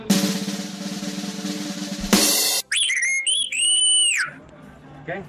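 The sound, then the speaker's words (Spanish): After a burst of noisy hum, a loud whistle plays the 'mentada de madre' insult tune, short sliding, rising and falling notes, a brief pause, then a sustained melodic phrase that fades out; dedicated to people of the Tenayo housing unit in Tlalnepantla, Mexico. “Oigan, por favor, una mentada para todos los de la unidad del Tenayo que se roban el agua.”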